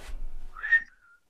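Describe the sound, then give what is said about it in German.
A brief whistled imitation of a bird call in outer space, by a bird-call imitator: a short, bright chirp that swells and then trails off into a thin, fading tone. A rustling burst comes just before it, and no one speaks. “Und er tritt da an mit seinem Spezialgebiet Vogelstimmen im Weltall.”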